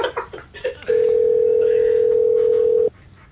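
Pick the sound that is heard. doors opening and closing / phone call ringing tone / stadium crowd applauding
phone call ringing tone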